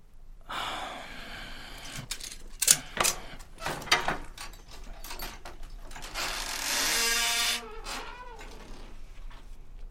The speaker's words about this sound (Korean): 그림 속에서 창고직이정년이 몸을 움직여 커다란 창고문을 열자